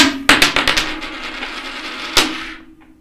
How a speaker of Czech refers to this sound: Ty nemůžeš házet mincí.